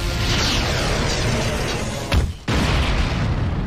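explosion sound effect

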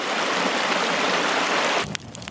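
babbling river stream

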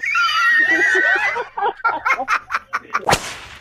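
goat bleating sound effect

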